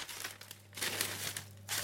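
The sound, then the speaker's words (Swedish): A newspaper, brought along for lighting a fire in the forest, being crumpled: a dry crackling rustle in irregular bursts that swell and fade over a couple of seconds, with a low steady hum underneath and no voices. “Jag ska också ta med oss den här tidningen.”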